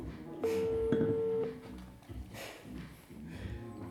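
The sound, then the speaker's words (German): A phone call going through: a few quick dialing beeps, then a steady, fairly loud ringing tone lasting about a second, followed by quieter muffled background sound. “Wäre geil, wenn keiner abhebt.”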